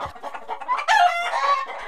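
Chickens cluck in short bursts, then a rooster crows loudly, its drawn-out call rising over the continuing clucking.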